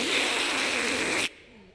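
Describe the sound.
A voice imitates a man slurping soup through his mustache: one long, airy, hissing slurp, steady and fairly loud for over a second before cutting off abruptly into quiet.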